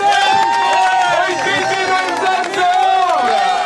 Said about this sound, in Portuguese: 82 anos! 82 anos, mereceu um dos maiores aplausos da tarde de sábado no Vulcão dos Capelinhos.